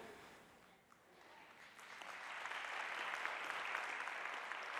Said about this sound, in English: All right, if you're gonna clap, you gotta go for it. There we go, okay.